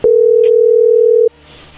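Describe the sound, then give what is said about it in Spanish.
A single loud, steady telephone ringing tone sounds for just over a second as an outgoing call connects, then cuts off abruptly, leaving faint background hiss. No one speaks. “A ver, ahí entró la llamada, no haga ruido.”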